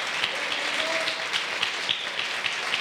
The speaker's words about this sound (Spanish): ¿Cuántos dicen amén? Dele, dele fuerte el aplauso al Señor.